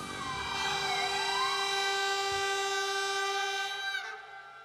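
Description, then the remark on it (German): Several sirens, including those of locomotives and motorcycles, wail together in a loud, sustained chord in an avant-garde music piece, one pitch sliding down and back up beneath the steady tones, before the sound abruptly thins near the end. No voices. “rekonstruierten sie das avantgardistische Musikstück Symphonie der Sirenen von Arseni Avramov”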